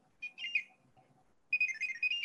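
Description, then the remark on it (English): Electronic R2D2 toy droid chirping: quick, high warbling beeps and trills in two bursts, a short one at the start and a louder, longer run after a brief pause, with no talking. “You can kind of hear um, R2D2. He has his little um, chirping sounds.”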